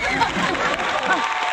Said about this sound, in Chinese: 对，那我就今天给你您唱一段京剧吧， 行行行，京剧来哪个 《红灯记》选段都有一颗红亮的 啊？ 心 李铁梅， 李铁梅 来 对， 掌声欢迎。